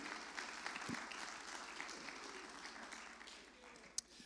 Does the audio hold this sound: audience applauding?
yes